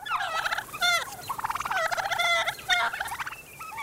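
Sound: wild turkey gobbling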